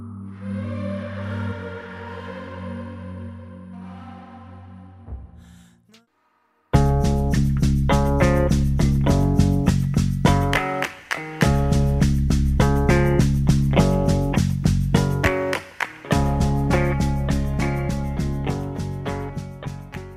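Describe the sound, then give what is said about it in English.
A song plays, opening with soft sustained chords, then a brief silence before a steady, rhythmic instrumental section of bright, repeated struck notes over a fuller low end. “We're going to go ahead and listen to a song.”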